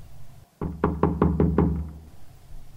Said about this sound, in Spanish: Entonces alguien tocó mi puerta.